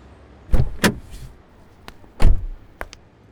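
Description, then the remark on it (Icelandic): A car door opens with a couple of solid clunks as a woman gets out of the car, then shuts with a heavy thud, followed by a few light latch clicks, with no voices. “Út úr bílnum steg ljósarð lávaksinn kona”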